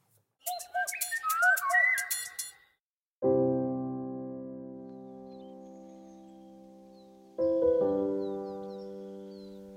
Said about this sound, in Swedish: Tallbit. Så dyker de upp igen.